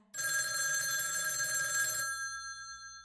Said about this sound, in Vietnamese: đúng lúc đó điện thoại reo vang